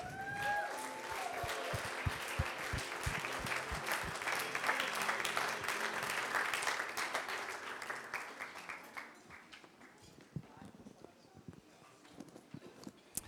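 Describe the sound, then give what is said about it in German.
Audience applause: a dense, steady patter of many hands clapping that gradually thins out toward the end, leaving scattered individual claps. “einen Applaus geben für seine Gegenwart.”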